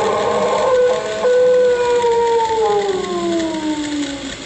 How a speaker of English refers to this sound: This is a portable tape recorder. If that thing howls or wails or screeches again, I'll get it on this tape.